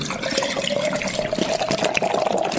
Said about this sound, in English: I'm going to take the bottle and I'm going to completely turn it upside down and raise it as high as I can above the glass without making a mess and dump it right in.